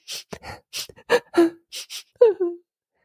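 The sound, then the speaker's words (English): A voice imitates the sniffling and whimpering of someone crying or upset: a run of short, sharp breathy sniffs followed by a couple of high, wavering whimpers, fairly loud with no other sound behind. “When we're upset, you might just hear someone sniffling,”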